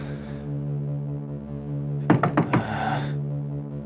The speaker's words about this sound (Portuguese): Apesar da maçaneta carregar um aviso de não perturbe, ele bate na porta.